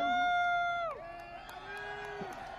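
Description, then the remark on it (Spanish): A stadium crowd roars, led by a loud, sustained shouted note that slides downward after about a second, then settles into a lower held tone over steady crowd noise. “YouTube te acaba de dar un strike por, el público gritando.”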